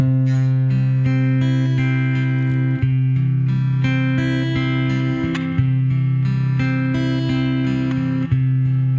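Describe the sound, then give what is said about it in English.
A single chord rings out and is held steadily for the whole stretch, a loud, unchanging harmonic drone with only slight re-articulations every few seconds and no voices. “Now we can also make time stand still by just holding the chord out for a long time.”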